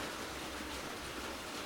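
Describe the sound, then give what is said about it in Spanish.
Steady rain making a continuous, even hiss with no distinct drops or pauses, heard on its own without any talking. “Voy a, voy a a, subir un poquito el volumen de la voz porque la lluvia espero que no se escuche tanto en el audio.”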